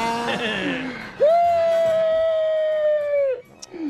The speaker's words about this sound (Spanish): Otra vez llora, hombre.